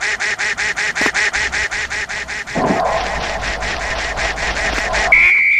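Rapid, repetitive electronic quacking pulses in a steady rhythm, with a brighter honking burst midway and a sustained synthetic tone at the end, loud, like a video game duck running to the right across a bridge while the player tries to keep it from falling off.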